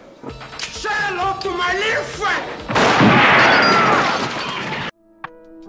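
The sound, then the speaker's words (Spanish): Gunfire rumbles through the neighborhood of Lugano, rising into a dense, noisy burst of shots after some indistinct voices, then cutting off abruptly near the end. “No, se están cagando tiro porque estamos en ah, Lugano.”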